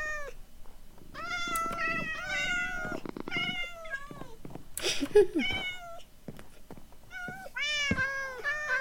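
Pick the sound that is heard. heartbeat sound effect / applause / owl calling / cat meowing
cat meowing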